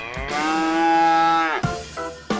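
A single loud, drawn-out cow moo, steady for over a second before breaking off, followed by a couple of brief, quieter fragments of sound.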